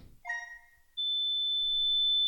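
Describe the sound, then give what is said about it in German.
A brief electronic chirp with a few harmonic tones, then a single high, pure steady tone from a Color Star color detector's light sensor set on a blank sheet of paper, holding unbroken and fairly loud until the end, with no one speaking. “Und da hören wir, der Ton ist einfach nur hoch und glatt. Das ist übrigens wieder der Color Star.”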